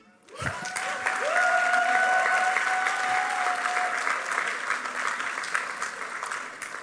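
A burst of audience applause starts abruptly and holds steady as dense, sustained clapping from a sizable crowd, with a brief tonal whistle or squeal riding over it early on.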